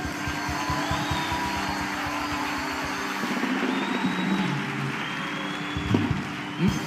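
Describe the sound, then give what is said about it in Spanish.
A standing church audience claps loudly and steadily in a dense, continuous wash of applause over a constant background roar, with clustered hand claps throughout and no voices standing out. “Ponte de pie, iglesia, y alégrate que el reino de Dios ha llegado y empieza a aplaudir fuertemente.”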